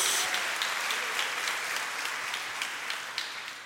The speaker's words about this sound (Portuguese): Quem está recebendo essa palavra, dá uma salva de palmas ao Senhor, dá um glória a Deus aí, em nome de Jesus.